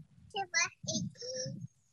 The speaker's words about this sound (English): If you hear uh, toddler noise in the background, it's just my daughter She's having a snack. So uh, thanks for your uh, patients with that in background.